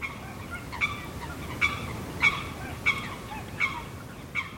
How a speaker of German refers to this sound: Diese Geräusche wurden um Mitternacht aufgenommen. Man hört das kleine Sumpfhuhn, Graugänse, Wasserrallen, Blässrallen, einen Höckerschwan, Teichrallen und die Rohrdommel.